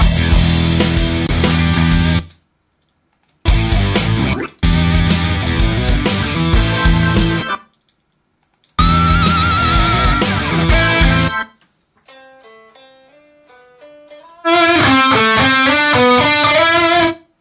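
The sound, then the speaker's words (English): A loud, distorted electric guitar harmony track plays back in bursts separated by brief silences, then a thin, clean-sounding DI guitar harmony line, followed by a brighter, boxier filtered passage. No one speaks. “Um, guitar harmony and guitar harmony DI.”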